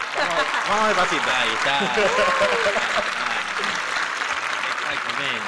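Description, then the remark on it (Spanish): A dense, steady burst of applause sound effect on a radio programme, celebrating a record of more than 30 listeners, loud and continuous, with voices talking and cheering over the applause. “Felicitaciones, aplausos, aplausos. Aplausos, por favor.”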